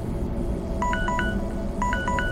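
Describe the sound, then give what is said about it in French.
Two quick bursts of electronic notification tones from a terminal, each a rapid run of three or four clipped beeps stepping in pitch, sounding clearly over a steady, dense low rumble. “Une notification s'affiche sur mon terminal, illuminant la pièce d'une lumière verte.”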